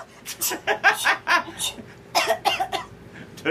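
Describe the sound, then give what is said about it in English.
A burst of repeated coughing, several sharp coughs in quick succession with brief pauses, trailing into a second cluster of rough coughs. “But at least the good news is, for the most part, the cold, what, the cold sinus infection, whatever we had last week, is gone, and we shouldn't spend this entire episode coughing and sneezing”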